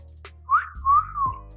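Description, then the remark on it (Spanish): A person imitates a catcall whistle from a young guy at a woman walking down the street: a rising chirp followed by a longer sustained whistled tone that dips at the end, fairly loud, with no talking. “Entonces no le puse ningún chocolate, seguí caminando, me hice la tonta y cuando iba a mitad de cuadra me vuelve a chiflar.”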